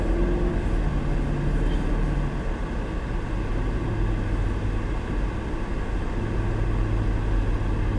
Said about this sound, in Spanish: Y porque la gente, hoy, abrieron muchos sitios, papi, está la gente afuera. En los demás días no ha habido tanto tráfico. No, porque muchos muchos negocios, mucha gente estaba cerrada, ya empezaron a abrir.